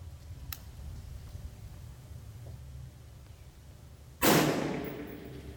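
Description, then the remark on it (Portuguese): Steady outdoor wind rumble with a faint early tick, then a single loud, sharp rifle shot, fired through a 4x scope at the 300 target at a shooting club in Monte Alto, its blast trailing off in a short decaying echo. “É, tiro, às vezes o, o, barulho demora um segundo, um segundo e meio para voltar.”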